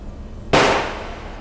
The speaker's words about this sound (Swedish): Efter det andra skottet ser hon honom falla.